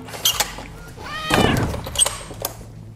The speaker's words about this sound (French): Ah, le chat veut rentrer. Espérons qu'il fasse pas trop de bruit.